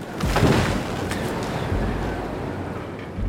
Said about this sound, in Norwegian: Dette er lyden av Dagmar på Sunnmøre. Orkanen fra julen 2011 som blåste båter på land og brakk trær i to som fyrstikker.